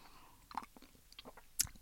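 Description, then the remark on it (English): Someone takes a sip of tea, a quiet run of small slurping and wet mouth clicks ending in one sharper smack, with no talking. “And I'm gonna have a cup of tea, sip of tea. Hold on one second.”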